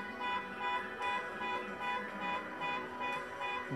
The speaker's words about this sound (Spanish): Oh, qué terrible cuando suena un auto con bocina. Alarma de un auto.